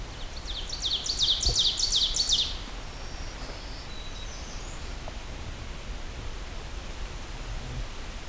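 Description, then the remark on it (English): An ovenbird's loud, repeated chanting phrases ring out for a couple of seconds, followed by fainter high song snippets of an American redstart, all over a steady outdoor hiss. “looks like we'll be exiting here with Ovenbird, American Redstart, and some more black-throated”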